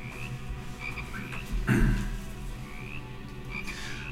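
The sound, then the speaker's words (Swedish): Toads croaking in a steady outdoor chorus down by a river, repeated short calls rising over a low continuous background hum, with one louder croak in the middle. “Du känner doften av oak tree och cypress och ljudet av de kväkande paddorna nere vid floden.”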